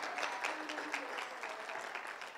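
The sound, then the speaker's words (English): A crowd claps steadily for two young ladies, students, a dense, even patter of many hands, sustained at moderate loudness without pause for the whole stretch. “Let's give these young ladies a round of applause.”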